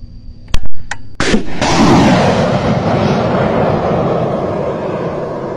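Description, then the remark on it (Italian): Anti-aircraft fire in the war in Ukraine: several sharp, loud bangs in quick succession, followed by a heavy, sustained rumbling roar that lingers and slowly fades, with no voices. “Questo è il suono della contraerea nella guerra in Ucraina.”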